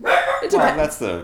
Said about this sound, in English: Oh, that's our dog, Duncan. Duncan. We share a dog. We share a dog.